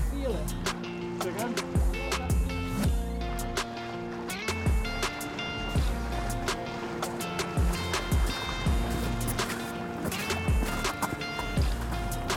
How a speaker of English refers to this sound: Right. Always love that first bit when you walk into the water.